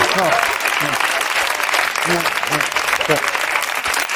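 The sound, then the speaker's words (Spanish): Steady, dense applause with a constant crackle of many hands clapping at even loudness throughout, while someone talks over it in short bursts. “El aplauso de la pena no me gusta.”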